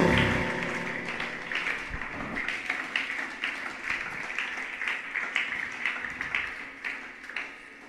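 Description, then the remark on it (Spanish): An audience applauds for the Lord during a sermon, a dense, steady wash of many hands clapping that swells and holds for several seconds before gradually thinning out, with no speech over it. “Un aplauso al Señor.”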